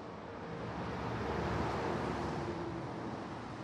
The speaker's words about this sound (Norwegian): To og et halvt år etter at de 45 bompengestasjonene kom opp, suser bilene forbi uten at det betales.